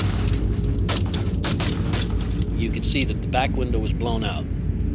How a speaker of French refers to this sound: Quand ils ont démarré, je descendais les escaliers et j'ai entendu les coups de feu.